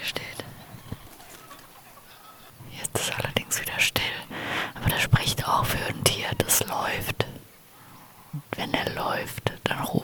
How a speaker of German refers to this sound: Aber drüben im Wald sind die Krähen ganz schön am Schreien. Ich warte jetzt einfach mal ein bisschen, was passiert. Irgendwas läuft im Wald definitiv.